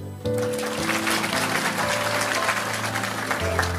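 A crowd claps steadily and densely for several seconds, the applause loud and continuous over sustained low musical tones from instruments playing underneath.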